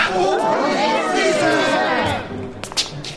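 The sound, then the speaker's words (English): A crowd of citizens chattering at once outside, a dense, steady babble of overlapping voices that thins out toward the end, with a few sharp knocks near the close. “Sorry to interrupt, but there's a bunch of citizens outside who wish for you to witness the sacrifice of the goats and dogs.”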